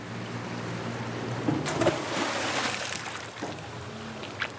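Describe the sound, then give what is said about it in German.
An anchor splashes from an aluminium boat into shallow water off a wide, deserted sandy beach in the Bijagós islands off Guinea-Bissau, a broad watery burst rising over a steady low engine hum, then fading into gentle lapping and a few small drips. “Der Anker klatscht ins flache Wasser vor einem weiten, menschenleeren Sandstrand.”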